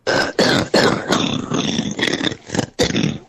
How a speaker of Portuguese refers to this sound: Eu achei uma tosse aqui, mas acho que não é da tua, da tua comadre. Já coloca pra gente ouvir.